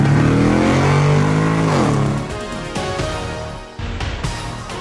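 A Corolla Cross SUV's engine revs loudly and climbs in pitch as the driver shifts into first gear and accelerates away, then eases off with a brief dip before the engine note continues steadily.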